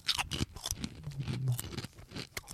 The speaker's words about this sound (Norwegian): Det er meget eh, god knas. Jeg er veldig glad i eh, Jeg har alltid vært glad i den klassikeren. Den er Salt og pepper.